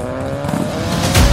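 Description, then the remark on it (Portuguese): A black Audi's engine roars at high speed in pursuit of a motorbike, its steady droning pitch holding throughout before a heavier rumbling surge near the end, with a faint hint of tire squeal. “quando mal Daniel reparou, um Audi preto o seguia a toda velocidade”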